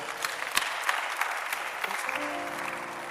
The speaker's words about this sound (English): How important are you? Come on, clap for yourself